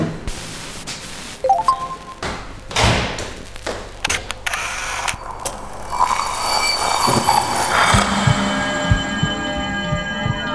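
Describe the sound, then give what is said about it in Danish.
Several sharp mechanical clicks and thuds of a door latch releasing, followed by a rising electric whine and steady mechanical hum as the door swings open. “Døren er åben. Okay, wow. Man behøver ikke engang noget svar. Den klikker bare ligesom op.”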